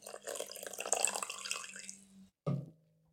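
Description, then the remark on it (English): Blueberry sparkling water is poured into a cup, a steady splashing, hissing rush for about two seconds, then a short knock as the pouring stops. No one speaks. “Time for a little refill, everybody.”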